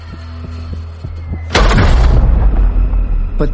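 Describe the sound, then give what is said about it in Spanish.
A low, steady hum with faint rhythmic thuds gives way to a sudden, loud explosion as a Russian artillery shell lands in the garden of the Reich Chancellery, its deep rumbling roar continuing and ending with a sharp crack. “Pero justo en ese momento, un proyectil ruso cae en el jardín y está claro que ir allí es demasiado peligroso.”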